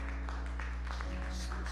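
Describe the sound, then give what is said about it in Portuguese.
An audience applauds in praise to God with loose, scattered claps rather than a dense roar, the bursts fairly even in loudness over a steady low electrical hum. “Dá uma salva de palmas a Deus aí”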